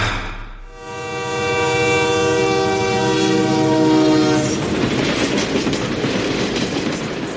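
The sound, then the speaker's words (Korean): A Trans-Siberian train's horn blares loudly for several seconds, then the steady rumble and clatter of the train rolling along the rails takes over, continuous, with no voices. “시베리아 횡단 열차 그걸 타러 갈 거야.”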